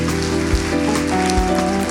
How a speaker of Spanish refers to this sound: ¿Qué tal si le damos un fuerte aplauso al Señor?